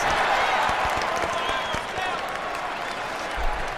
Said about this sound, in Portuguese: Vamos até dar um, uma salva de palmas.